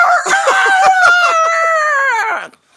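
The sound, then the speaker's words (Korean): A person imitates a cock's (jangdak) crow to close a radio segment with New Year's wishes, in one long, loud, strained call of about two and a half seconds, wavering in pitch and breaking up before it cuts off. “장닭으로 해요? 예, 장닭으로.”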